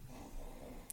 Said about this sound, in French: Ça, c'est le chien qui ronfle.